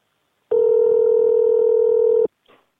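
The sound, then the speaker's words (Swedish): A steady telephone dial tone hums loudly and evenly for nearly two seconds, then cuts off, followed by a brief, faint blip like a single keypad press. “Du vet väl att du kan göra olika val genom din telefon? Som 41 fyrkant, boka läkartid nästa år eller 71 fyrkant prata med en inspelad mentalskötare.”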